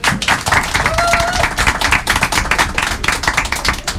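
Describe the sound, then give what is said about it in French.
A crowd applauding, with dense, steady clapping that stays loud for about four seconds, and a brief whistle-like tone near the start. “Quelques applaudissements s'il vous plaît.”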